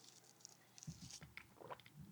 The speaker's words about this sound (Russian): То есть человеку дается просто как коктейль, вот он делает глоток